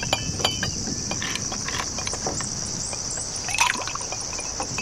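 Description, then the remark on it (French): Ice cubes clink against glasses of red wine in quick, irregular taps, with faint sloshing of liquid, at a table beside a swimming pool on a hot, humid afternoon in Buenos Aires, all over a steady high-pitched hiss or buzz in the background. “Une table avec des poivrons rouges dans les assiettes, du vin rouge dans les verres, des glaçons dans les verres.”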